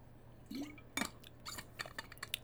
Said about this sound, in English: need to drink some water